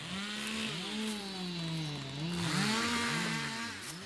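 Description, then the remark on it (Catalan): A chainsaw engine runs steadily and loudly, its buzzing pitch wavering up and down as the throttle rises and dips, with no voices. “Ara, si intentes entrar per aquí dintre, com no agafis una motosserra i et obris pas allà com puguis, no podràs passar una línia d'aigua de cap forma.”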